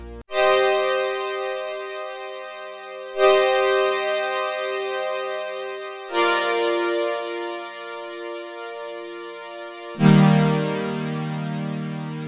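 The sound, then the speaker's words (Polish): A synthesizer backing track of four long, sustained chords, each starting with a fresh attack a few seconds apart. The tone is rich and buzzy with slight distortion, and the last chord is bassier. “Na to subtelne zniekształcenie i mamy w zasadzie gotowy podkład do każdego typu muzyki.”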